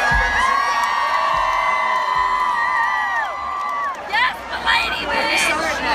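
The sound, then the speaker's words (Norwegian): An audience in a hall cheers and shouts loudly and continuously for a girl from the audience who has come up to rap a song with the performer, with high whoops and screams layered over dense babble; the roar dips briefly at the end before rising again in scattered yells. “Ok, man hører, man, vent da, man hører noen rope dette.”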